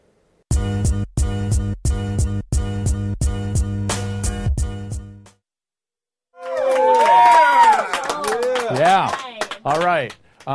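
studio audience cheering

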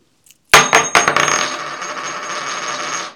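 coin toss landing

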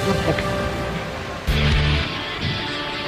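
rain falling

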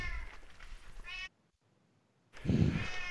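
cats meowing loudly

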